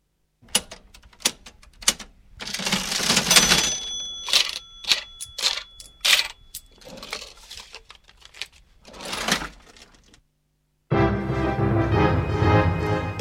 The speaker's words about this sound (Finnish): Ja nyt seuraa viikon koneääni, joka on tällä kertaa kassakone.